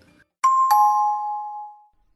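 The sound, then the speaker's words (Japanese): A two-note doorbell-style chime, a quick ding-dong with the second tone ringing out and slowly fading. It sounds clear, with no voices around it. “えー、っと、来週の、えー、っと、水曜日の配信のチャイムは、あの、まだ新鮮編なんですよ。”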